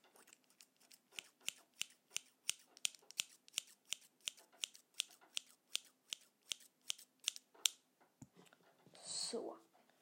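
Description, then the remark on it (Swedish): Scissors snip through paper in a steady run of about twenty crisp, evenly paced cuts, followed by a soft rustle of paper near the end. “Jag ska klippa i papper lite nu tänker jag.”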